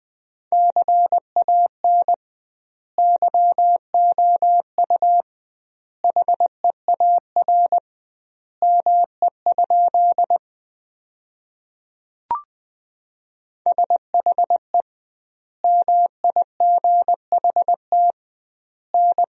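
Morse code sent at 20 words per minute with double word spacing, sentences built from the 300 most common words: a single steady beeping tone keyed in quick dots and dashes, grouped into words separated by short pauses, with one brief click midway and no voices.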